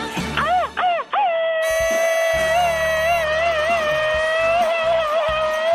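A Mexican 'grito ametralladora' (machine-gun yell) played on a Spanish-language radio show: a rapid burst of sharp, swooping yelps that breaks into one long, loud, high-pitched held cry with a slight waver, over a low rumbling background.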